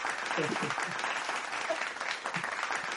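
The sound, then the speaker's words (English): Steady applause from a show audience welcoming a guest, a dense wash of many hands clapping at a fairly even loudness for a few seconds, with faint voices mixed in underneath. “give me the clapping okay hey, I, I, I there okay there you go all right oh my mom's clapping”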